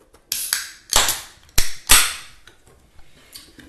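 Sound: beer cans cracked open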